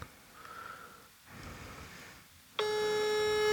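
signal or alarm, telephone ringing tone

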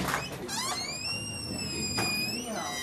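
household object, shop door opening

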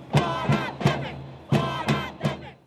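crowd, demonstrators chanting

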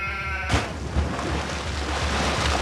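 animal, sheep bleating

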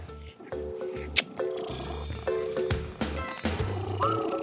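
animal, cat

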